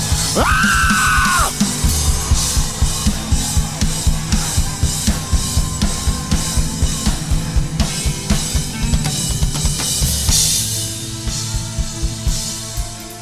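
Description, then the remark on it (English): A crowd of worshippers shouts and yells loudly, one rising high-pitched yell standing out at the start, then a sustained roar of many voices over a steady pounding beat. “The louder you shout for him, the louder you shout for him, the louder you shout for him, the louder you shout for him.”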